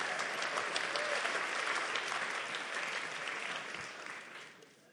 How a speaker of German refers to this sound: Super, Applaus für unseren Techniker.